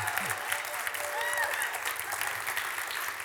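A crowd applauds steadily for several seconds, a dense, even wash of clapping with faint cheers and whoops rising briefly through it.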